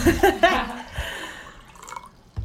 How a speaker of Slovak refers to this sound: Počkaj, tak ja si nalojem vodu. aj, aj, aj ja vodu.